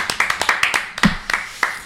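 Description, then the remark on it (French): A small group of people around a table claps together in a brief burst of applause at the end of a debate: a steady patter of crisp hand claps overlapping unevenly, with no one speaking. “Applaudissements, applaudissements généraux.”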